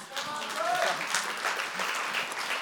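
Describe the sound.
A crowd applauding steadily, a dense, even wash of many hands clapping at once that holds at a constant loudness, with a faint voice or cheer briefly rising through it.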